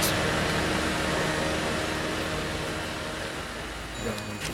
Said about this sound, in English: The sound of Cunningham's hardware yard echoes throughout the street.